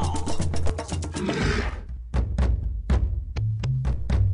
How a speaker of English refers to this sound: Ah, oh, you're walrus, bellowing in my ear.